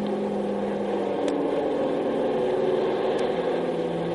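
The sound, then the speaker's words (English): A Navy airplane drones overhead above an island, a steady, continuous engine rumble holding at an even, moderate loudness with no voices, filling the whole moment without rising or fading. “Hmm, that's the third Navy plane I've seen over the island in the last 24 hours.”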